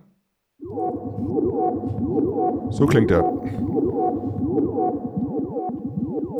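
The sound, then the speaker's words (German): A drum synthesizer sequencer rattles off a fast, steady pattern of electronic clicks and pitched, chirping blips with no drums yet, loud, with a brief spoken voice in between. “So, jetzt haben wir nochmal keine Drums, jetzt haben wir erstmal nur so Klicks und Klocks.”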